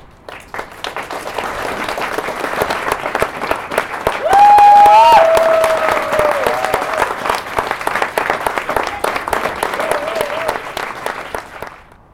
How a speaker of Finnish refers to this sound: Palataan asiaan loppuaplodien jälkeen.